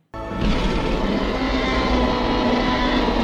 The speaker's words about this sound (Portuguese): Como que foi do... feito esse rugido? Ele é feito de vários bichos juntos. É cachorro, Tigre, pinguim, jacaré e elefante. Mas imagina esse é pra o... criar esse negócio. É, esse é o rugido do T-Rex.